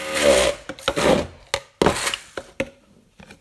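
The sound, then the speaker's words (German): A thick smoothie mixture is stirred and tamped in an appliance that must be pressed, tamped and stirred before it works, with rough scraping strokes followed by several sharp, irregular knocks and thumps that fade into quieter scrapes. No one speaks. “Mann, ich hasse das mit diesem Ding, dass man das immer vorher so drücken und stampfen und umrühren muss, bevor das hier geht.”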